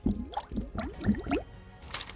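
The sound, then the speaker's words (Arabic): Rapid burbling bubbles blown underwater, a quick series of wet, gurgling pops in uneven bursts, fairly quiet, ending with a brief splashy hiss. “هل يمكنك عمل فقاعات تحت الماء؟”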